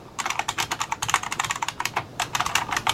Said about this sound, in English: You're going to be able to hear this. I'm just going to type out uh, a quick sentence, okay? Okay. So let me uh, move the mic so the listeners get to hear this. Here we go.